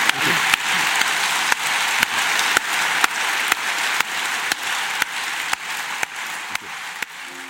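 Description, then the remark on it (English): An audience applauds an author at the end of an afternoon event for readers, a dense continuous wash of clapping with sharper accents recurring about twice a second, holding the same level throughout with no voices. “And could you show that appreciation, please?”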